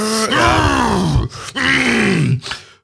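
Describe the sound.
A man's voice imitates bodybuilders' straining gym grunts, two long, loud, strained roars with falling pitch, followed by a short breathy grunt, alone with no talking.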